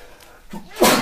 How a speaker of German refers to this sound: Ey, Gesundheit, ey. Ich muss... Ich, ja, Entschuldigung, danke. Ich schnaube, du niest. Super.